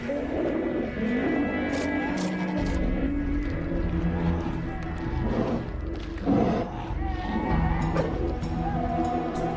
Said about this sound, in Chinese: 粗野喧闹的熊海狮们为了求偶，狂躁的横冲直撞。